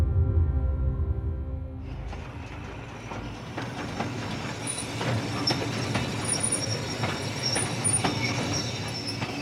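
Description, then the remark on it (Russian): A train rolls along the rails at a small station near Kharkiv in March 1933, with steady rumbling and clattering wheels, faint high squeals and metallic clicks repeating over the din; a low engine hum opens before the wheel noise swells in. “В марте 1933 года британский журналист Гаррет Джонс сходит с поезда на небольшой станции под Харьковом.”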